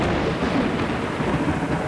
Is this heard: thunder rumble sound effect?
yes